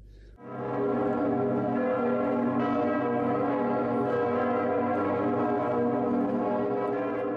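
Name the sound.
bell ringing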